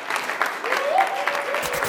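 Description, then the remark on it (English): Steady applause from an audience for everybody present, Kappa Alpha Order at the University of Nevada, Reno: a dense wash of clapping hands with a faint rising whistle or cheer running through it, sustained at an even level. “And let's have a round of applause for everybody here, Kappa Alpha Order at the University of Nevada, Reno.”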